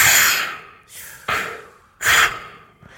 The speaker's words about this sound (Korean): 아, 근데 아, 이 숨소리 듣는 거 참 좋은 건데. 왜냐면 우리가 저 스킨 스쿠버, 스쿠버 다이빙 하러 가면 이제 네. 숨소리만 들리잖아요. 제 숨소리만.